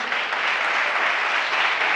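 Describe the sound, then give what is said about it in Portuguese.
A crowd claps steadily, a dense wash of many hands at an even, fairly loud level that holds without a break for the whole two seconds, with no voices over it. “Dá um aplauso a ele por isso.”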